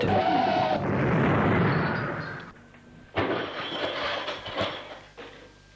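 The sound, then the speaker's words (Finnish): A loud train rumbles past with a broad, roaring clatter that fades, then a sudden burst of heavy rattling noise picks up again and continues. No one speaks. “kuljimme liipaavan junan.”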